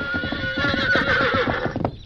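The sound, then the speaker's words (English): A horse whinnies in a loud, shrill, quavering call lasting about two seconds, over a steady rhythm of hooves clopping as it arrives with Dan not in the saddle. No one speaks. “Dan's not in the saddle.”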